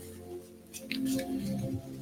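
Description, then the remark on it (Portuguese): A deck of oracle cards being shuffled, a few soft papery riffles and slides in quick bursts, with a low steady humming tone running underneath. “Eu, entretanto, estou aqui a baralhar o nosso baralho, o nosso oráculo da consciência.”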